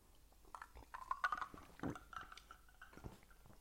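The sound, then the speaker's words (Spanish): Quiet sipping of Coca-Cola: a few wet slurps and a gulp, with faint liquid and mouth sounds, no talking. “Bueno, ¿vais a permitir que eche un traguito?”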